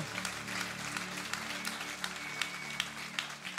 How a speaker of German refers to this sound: Lass uns Gott noch einen riesen Applaus geben